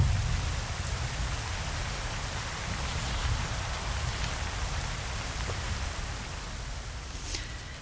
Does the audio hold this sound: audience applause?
no